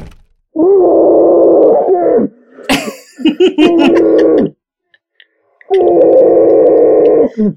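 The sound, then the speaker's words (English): A voice imitates the muffled, strained groaning screams of a man shut inside a closet, in three long sustained bursts, broken by a sharp breathy laugh-like sound in the middle, fairly loud with short silences between. “He's using it as a scream room.”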